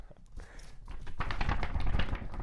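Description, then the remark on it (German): Paper rustling and crinkling at the mic, a few soft taps at first, then a louder, continuous shuffle as sheets of paper with notes written on them are handled and moved about. “Falls ihr das Papier hört, das ist das Papier, auf dem ich meine Notizen gemacht habe”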